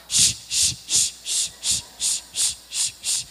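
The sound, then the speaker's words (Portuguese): A voice imitates a pressure cooker hissing, with about nine sharp, breathy hisses in a steady, rapid rhythm, fairly loud, with no talking. “E eu titubeava para um lado, para o outro, feito uma panela de pressão, e só conseguia chiar.”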